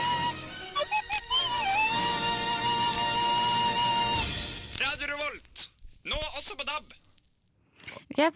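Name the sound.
radio station jingle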